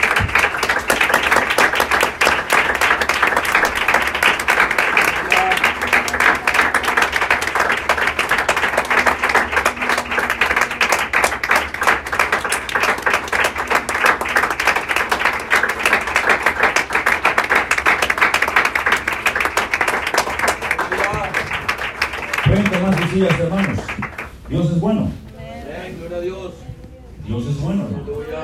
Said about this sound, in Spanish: Gracias. y vamos a dar un fuerte aplauso al Señor de la gloria.